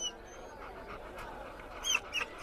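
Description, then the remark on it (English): A dog whimpers softly in a few short, high-pitched whines, the last two coming close together near the end, over a low murmur of background noise. “Furthermore, you know dogs ain't allowed in this joint.”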